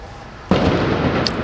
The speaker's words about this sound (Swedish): Israels militär har satt upp någon slags vägblock längre upp på vägen. Eh, de har hållit på i typ en timme nu. Med ljudbomber och tårgas. Jag tänkte bara ge en liten bild av hur det kan låta.